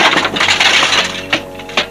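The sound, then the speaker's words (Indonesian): A loud burst of cracking and splintering wood as a wooden chair is kicked and smashed to pieces, with a dense clatter of breaking pieces followed by two sharp separate impacts as debris falls, without any talking. “Kursi yang ada di dekatnya ditendang hingga hancur berantakan.”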